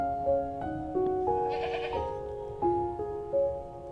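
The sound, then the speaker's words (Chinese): Sheep bleat repeatedly, a string of loud, wavering, nasal calls that overlap and shift in pitch, with no talking over them. “四只小绵羊进入梦乡喽，五只小绵羊做着甜甜的美梦，六只小绵羊。”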